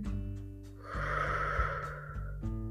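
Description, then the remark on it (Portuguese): A slow, deep breath, a soft rush of air lasting over a second, taken as part of a calming breathing exercise, in through the nose and out through the mouth, set against a steady low hum with no talking. “Pensa, foca na tua respiração, ok? Tem calma. Inspira. Expira.”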